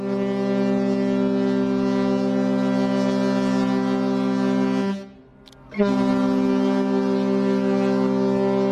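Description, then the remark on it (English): A Russian icebreaker, the Colossus, sounds its deep, loud horn in a long, steady low-pitched blast, cuts out for under a second, then sounds again just as strongly, with faint wind noise underneath. The ship has roared up and stopped four points to starboard, less than 100 meters from the bow of another ship. “And sure enough, just 10 minutes later, the Colossus roars up and stops four points to starboard, less than 100 meters from our bow.”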